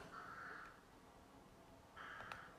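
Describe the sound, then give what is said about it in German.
A raven caws twice, two harsh, drawn-out croaks separated by a short pause, clear over a quiet background. “Oh nein, der Rabe.”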